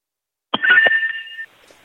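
A small hand bell, rung by auctioneer Catalina Martinez to signal that the bidding is over at the end of an auction, rings out sharply in a few quick shakes, leaving a bright, sustained metallic tone that lingers for about a second before cutting off into quiet.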